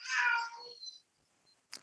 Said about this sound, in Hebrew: חתול. חתול.